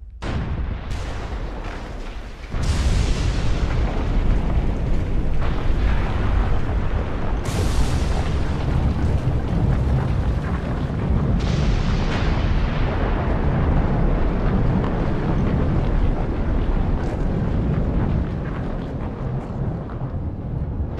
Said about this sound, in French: En contrebas, le sol se soulevait déjà de manière anormale quand une explosion jamais connue dans l'histoire humaine se déclencha. Le supervolcan Yellowstone venait d'entrer en éruption.